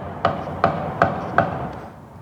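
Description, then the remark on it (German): Four sharp gunshots crack out in quick, evenly spaced succession, each followed by a brief ringing echo, over a steady background hum with no voices; volleys of shots at night, shortly after 9 pm, fired at a Jehovah's Witnesses building in a town, filmed by a resident on his phone. “Gestern Abend, kurz nach 21 Uhr, Schüsse hallen durch die Nacht, ganze Salven.”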